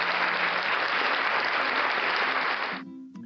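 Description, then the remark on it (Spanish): A burst of steady, dense applause, like a full crowd clapping, carries on loudly for almost three seconds and then cuts off abruptly, leaving a faint quiet tail. “Un aplauso para la maquinita.”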